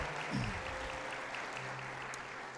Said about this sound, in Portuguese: Podemos aplaudir a Deus pela palavra de Deus, que é maravilhosa.